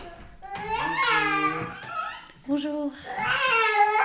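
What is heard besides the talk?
baby babbling and crying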